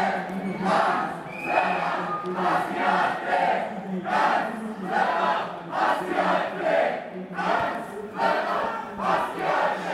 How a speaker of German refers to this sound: So hörte es sich an, als knapp 100 AntifaschistInnen am gestrigen Sonntag, den 11. Juni 2023, eine Kundgebung der AfD auf dem Lörracher Marktplatz mit Gegenprotest begleiteten.